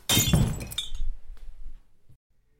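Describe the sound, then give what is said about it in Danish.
A drinking glass of water, dropped by a person fainting in a kitchen, hits the hard floor and shatters loudly, a sharp crash followed by a scatter of tinkling shards and a few small bumps before it falls silent. “Her ligger jeg, bevidstløs på gulvet, med vand og glaskår, der omfavner min krop.”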